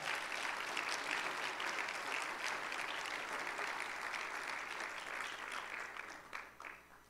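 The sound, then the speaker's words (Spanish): A church audience gives a round of applause to the Lord, with sustained, dense clapping that holds steady for several seconds before thinning out and tapering off at the end, with no talking over it. “Dele un aplauso al Señor que lo merece.”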